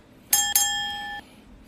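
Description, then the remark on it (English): A bright bell dinger rings twice in quick succession, the second strike sustaining a clear metallic tone for under a second before cutting off. No voices accompany it. “We can hear the dinger”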